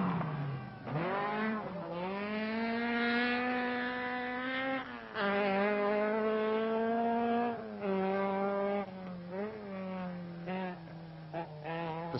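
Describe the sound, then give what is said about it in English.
Fisher's Alamak Manta rally car, prepared by Sydney Meek, driven hard on a rally stage, its engine screaming, pitch climbing and dropping repeatedly through gear changes and throttle lifts, loud and continuous with no voices. “Fisher in the Alamak Manta just cannot shake off his great rival, and his lead could evaporate with a simple puncture.”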